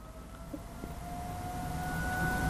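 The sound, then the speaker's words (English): Outdoor warning sirens in Starkville hold a steady, drawn-out tone over a low background rumble, fairly faint and slowly swelling, with no one speaking. “we got sirens going off here in Starkville.”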